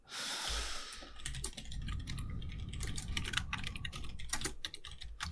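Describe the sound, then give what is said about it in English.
Rapid clacking of computer keyboard keys, a steady flurry of fairly loud keystrokes after a brief hiss at the start, with no one speaking. “I feel like if I stay quiet while I'm pressing buttons, the buttons are quieter if you are.”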